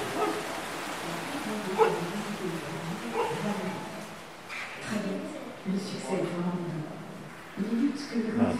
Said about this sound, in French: Voilà, puis à quelques mètres de nous, il y a un chien, le chien du voisin, qui nous accueille.